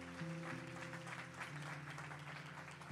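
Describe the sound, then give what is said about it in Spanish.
A church audience claps for the Lord during a sermon on prayer, in a dense, steady burst of applause lasting the full few seconds, with a sustained low keyboard chord droning underneath. “Alguien que le dé un aplauso al Señor que lo crea de verdad.”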